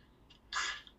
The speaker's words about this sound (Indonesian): Alhamdulillah. Tiba-tiba bersin lu. Kenapa lu?